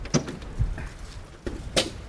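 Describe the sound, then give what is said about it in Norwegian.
A door is opened to get inside, with a few sharp clunks and a latch click near the start and end, a low thud in the middle, and quiet rustling between. “Å komme seg inn her. Lukk, luk døren forsiktig, står det her.”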